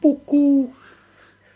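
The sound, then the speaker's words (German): A person imitates an owl's hoot with their voice: a short hoot followed by a longer, drawn-out one, fairly loud, then fading into quiet room noise. “Und das ist die Eule.”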